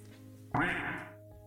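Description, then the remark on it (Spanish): A single loud, raspy duck quack bursts in suddenly and fades over under a second, set against a steady low background hum. “Y eh, está raro el pato ese.”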